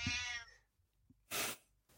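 A single short cat meow, clear, fades out, then brief breathy bursts of noise follow with no talking.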